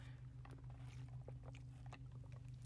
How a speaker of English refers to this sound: And so my throat is like just killing me. Let me take a little sip out of this.